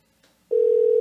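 A telephone call is being placed: after a moment of near silence with a faint click, a telephone ringing tone sounds, a steady, clear single-pitch hum that comes in abruptly and holds loudly to the end.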